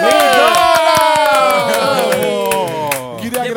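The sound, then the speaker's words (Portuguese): A short burst of applause for Mulher Filé, with loud cheering and whooping voices rising and falling in pitch over steady clapping, fading slightly toward the end. “Gente, eu queria agradecer a mulher filé já que uma salva Aê! de palmas!”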